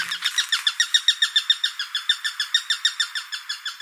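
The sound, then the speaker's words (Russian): A Eurasian sparrowhawk calls a rapid, steady series of sharp, high kek notes, about six per second, loud and clear with no other sounds or voices. “Честно скажу, отличить перепелятника от тетеревятника по голосу сложно, потому что перепелятник звучит вот так,”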